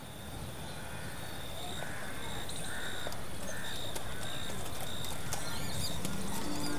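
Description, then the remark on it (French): A horse's hooves trot along at a steady outdoor pace, with a constant rushing ambience and birds calling faintly in the background. “mais le trot d'un cheval le sort soudain de sa rêverie.”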